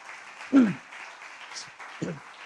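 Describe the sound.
A church audience applauds God in a steady, dense wash of clapping that fills the whole clip, with a couple of brief voiced shouts rising above it.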